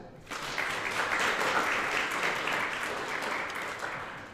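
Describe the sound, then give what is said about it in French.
A crowd bursts into steady applause after a brief quiet start, many hands clapping together in a dense, sustained wash that holds fairly even for several seconds, with no one speaking. “On applaudit ça.”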